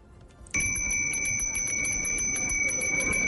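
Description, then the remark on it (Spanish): An ice cream vendor's hand bell rings rapidly and continuously, bright, with quick repeated clangs over a low outdoor background rumble in Plaza de Bolívar, Bogotá; no one speaks. “Este es el sonido de la campana de los helados aquí en la Plaza de Bolívar.”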